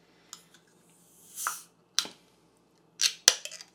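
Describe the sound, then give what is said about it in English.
A 23.5-fluid-ounce can of flavored premium malt beverage is opened: a few light clicks, a brief rising hiss of escaping gas, then several sharp metallic snaps and pops. No one speaks. “Let's go ahead and get it open, get it into a glass.”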